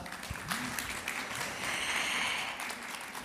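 An audience gives a guest a round of applause, a dense wash of many hands clapping at once that holds a fairly even, moderate loudness for a few seconds.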